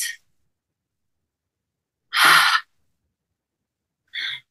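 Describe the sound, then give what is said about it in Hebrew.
During a guided breathing exercise, with eyes closed and seated, a deep, airy breath is drawn into the belly and pushed out, with one strong half-second exhale in the middle and fainter breathy bursts at the start and end. Clear, with no talking. “בואו ניקח ביחד נשימה טובה לבטן.”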